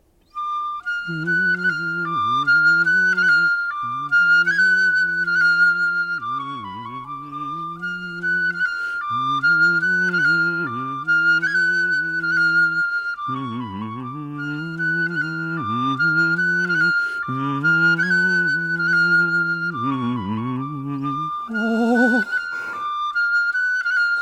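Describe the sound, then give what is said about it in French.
A reedy bamboo snake charmer's flute plays a winding, nasal melody over a steady droning tone, continuous and fairly loud for about twenty-four seconds with no voices. “Je me souviens, la flûte sifflait un air comme celui-ci.”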